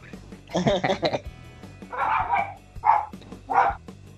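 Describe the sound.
A dog barks three times in fairly quick succession, moderately loud, after a short burst of voice-like vocal sound at the start.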